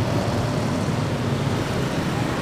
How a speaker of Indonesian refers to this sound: tapi di belakang ini ramai banget motor yang di depan pasar Cicadas